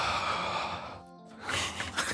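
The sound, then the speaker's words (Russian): Heavy breathing into the microphone: a long rushing breath, a brief pause, then another loud, airy breath. No one speaks. “Сейчас тебя, по-моему, тоже попизди что-нибудь заебал там дышать, блядь.”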